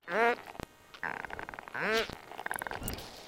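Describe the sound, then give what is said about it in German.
Harbour porpoise biosonar clicks in rapid creaking trains, like a slowly opening door, broken by two short, squeaky, tonal bursts; the audible sound is a low-frequency by-product of its ultrasonic calls. Moderately loud, with no voices. “Ein bisschen hört sich der Schweinswal an wie eine knarrende Tür.”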